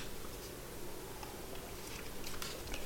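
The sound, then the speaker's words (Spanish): A long, quiet sip of unsweetened coffee on 24 March 2023: a soft, steady slurping hiss that runs for about three seconds, dotted with faint little clicks. No one speaks. “Así que me voy a dar un buchito largo y sin azúcar en este 24 de marzo de 2023.”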